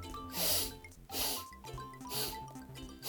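Four deep breaths drawn in through the nose during a guided breathing exercise, breathing in four times and then out four times with the right hand on the navel, each a loud, airy hiss repeated at a slow, steady pace over soft background music.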